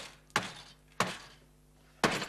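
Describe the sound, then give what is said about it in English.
Hammering: a man making a desk with two drawers in his workshop strikes three sharp, solid blows at an uneven pace, each ringing briefly before fading, with no talking in between. “Russell, stop that noise! Oh, he's hammering again.”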